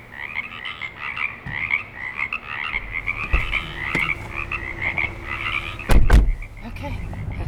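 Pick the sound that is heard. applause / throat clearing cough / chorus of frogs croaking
chorus of frogs croaking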